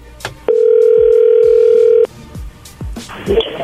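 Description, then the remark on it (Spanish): A telephone tone sounds as a call comes in: one loud, steady, mid-pitched beep held for about a second and a half, followed by soft thumps and rustling. “Oye, entró ahí, contéstale tú.”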